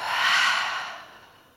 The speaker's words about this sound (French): Et pour vous redynamiser, vous pouvez prendre une profonde inspiration par le nez et soufflez fort par la bouche.